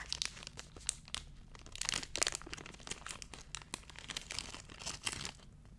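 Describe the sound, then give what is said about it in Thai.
A small individual package of egg-free, vegan crunchy raisin cookies being unwrapped: continuous crinkling and crackling of plastic wrapper with sharper tearing bursts, moderately loud, lasting several seconds with no talking. “เขาแบ่งเป็นแพ็กเกจจิ้งเป็นซองเล็กๆ น่ารักเชียว healthy crunchy cookie you ever had อืมโอเค คนที่เป็นวีแกนหรือเป็นเวจเทเรียนทานสิ่งนี้ได้นะคะ เพราะว่าเขาไม่ผสมไข่เลย อ่ะ แกะแล้วมาลองกันดีกว่า”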